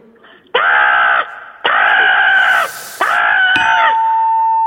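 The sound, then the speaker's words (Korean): A human voice imitates a crow with three loud, drawn-out, harsh 'caw' calls in a steady rhythm, each trailing off with an echo effect added by the studio engineer. No other talking is heard. “뭔가 좀 뭔가 까마귀 같긴 한데 좀 짜증만 나고”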